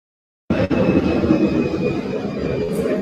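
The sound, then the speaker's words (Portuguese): A loud, steady roar of an airplane passing overhead beside Congonhas airport, a broad rumbling wash of engine noise with a faint high whine, starting abruptly and holding strong throughout without voices. “passar o avião.”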